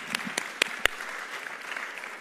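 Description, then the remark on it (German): An audience claps steadily, applauding God during a sermon translated from English into German, a dense wash of many hands with a few sharper, louder claps standing out at the start, with no talking over it. “Komm, lass uns Gott mal einen Applaus geben.”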